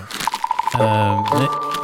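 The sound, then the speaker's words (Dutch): Papers rustle and crinkle in a few quick, uneven bursts as someone checks whether their papers are all in order, with a steady tone and a vocal hum running underneath. “Even, bij, even kijken of ik het wel allemaal op orde heb, de papieren.”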